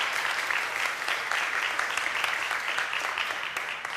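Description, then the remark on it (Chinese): Warm, sustained applause from a church audience thanking a sister and giving glory to God, a dense steady patter of many hands clapping at an even, fairly loud level for the full few seconds, with no talking over it. “我们再一次用热烈的掌声来谢谢”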